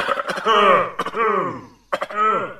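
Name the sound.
harsh coughing fit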